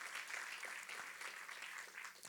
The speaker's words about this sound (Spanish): Den un aplauso al Señor Jehová de los ejércitos.